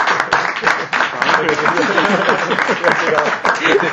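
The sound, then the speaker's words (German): A crowd applauds steadily, dense overlapping claps forming a loud, continuous patter for several seconds, with some voices mixed into the clapping. “Und von den Zahlen mit einem Applaus.”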